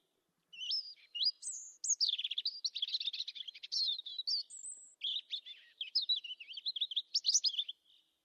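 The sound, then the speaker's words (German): A European robin sings a continuous, varied warbling song of high, thin whistles, trills and chirps, clear, with no other sounds around it. “Und kurz vor Sonnenaufgang beginnt ihr Gesang, den hört man dann auch schon immer, der klingt so.”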